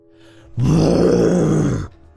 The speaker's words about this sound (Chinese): 一道怒吼之声从空间界的深处响起，原本将要坍塌的空间界顿时被稳定下来。